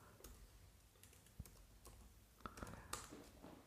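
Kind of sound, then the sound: tool, typing on computer keyboards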